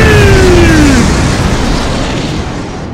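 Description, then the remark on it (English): A pipe bomb explosion: a loud, harsh blast with a whistling tone sliding downward in the first second, then a dense roaring rumble that slowly fades over three seconds. No voices. “I found the source of the ticking. It's a pipe bomb.”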